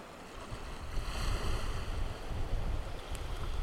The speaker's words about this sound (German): Danke fürs Unterstützen und sorry fürs Meeresrauschen im Hintergrund.